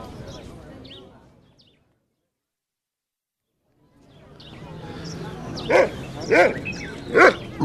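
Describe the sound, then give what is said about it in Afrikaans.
A dog named Bixie, on a leash among people at a gathering in a park, lets out three sharp, high-pitched yelping barks in quick succession over a murmur of crowd chatter, after an earlier stretch of babble and a couple of seconds of silence. “Hy hou nie baie van 'n leiband nie, maar ek wil hom nie losmaak tussen al die mense nie.”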